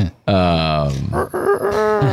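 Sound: person imitating a chicken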